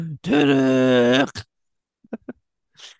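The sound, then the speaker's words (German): A person loudly imitates an elephant's trumpeting call with one long, strained, wailing note lasting about a second, followed by a few soft clicks and a quiet breath. “und guckst runter und dann ist da einfach so eine Herde Elefanten mitten in den Alpen.”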